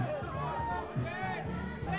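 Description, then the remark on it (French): A dense, lively crowd at the Cannes film festival red carpet fills the scene with overlapping voices and excited chatter, steady and loud throughout. “Alors maintenant, je vais vous faire écouter à quoi ça ressemble un tapis rouge à Cannes.”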